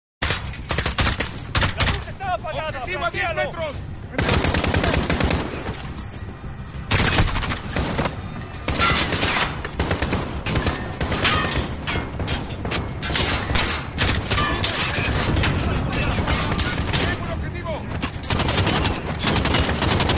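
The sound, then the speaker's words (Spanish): Rapid bursts of Call of Duty video game gunfire fill the scene, with sustained automatic fire, sharp single shots and occasional heavy thuds, loud throughout with no pauses. “Para que disfruten lo bien que suena este juego, detallen este soundplay.”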